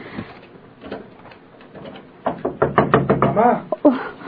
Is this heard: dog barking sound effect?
no